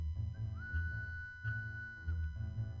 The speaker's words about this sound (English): watching his sheep, lazily breaking a reed and blowing through it. And he broke a second reed, a little shorter than the first, and he heard.